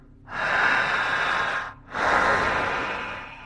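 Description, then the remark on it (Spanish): Two long, forceful breaths drawn in sharply one after the other, each a broad rushing hiss lasting over a second, loud with a brief pause between them, taken with eyes open during a guided breathing exercise. “Ojos abiertos, seguridad. Jalando el aire. Fuerte.”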